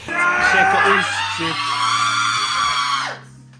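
A person lets out one long, loud, high-pitched scream lasting about three seconds, breaking off abruptly, with a low steady hum underneath.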